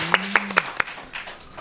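A few sharp, evenly spaced claps ring out, then give way to softer, scattered clapping that fades. A low hum sits underneath the first half-second.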